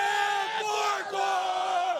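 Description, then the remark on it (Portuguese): A dense crowd of Água Santa football fans in the stands at Arena Barueri roars and chants together in sustained, loud unison, many voices blending into a steady wall of cheering with no individual speech. “Na arquibancada, Janice de Castro vai mostrar a festa dos torcedores do Água Santa.”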